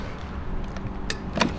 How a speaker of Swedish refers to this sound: Så, så är bilen upplåst. Och då kan jag också dra ut laddsladden